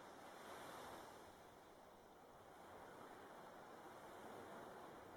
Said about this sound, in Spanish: Sigue tumbada o tumbado, escuchas las olas de la playa y el sonido de las aves pájaros marinos, un sonido profundo, agradable e inspirador.